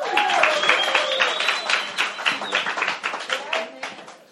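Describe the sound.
A crowd at a church service applauds steadily for several seconds as a speaker is introduced to bring the morning's message, a dense patter of many hands clapping, with a few voices calling out and whooping over it before it thins at the end.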